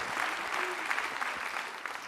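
Sustained audience applause during a political speech on the L'avenir en commun programme and abolishing the El Khomri law, a dense, steady wash of many hands clapping at fairly even loudness throughout, with no voices standing out.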